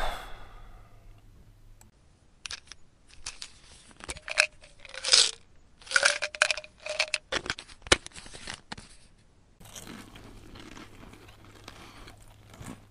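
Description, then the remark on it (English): A short burst of small hard pills rattling and clicking out of a container, followed by wet crunching as they are chewed. No voices. “these things are absolutely disgusting when you chew them up, but man, they sure work a hell of a lot faster that way.”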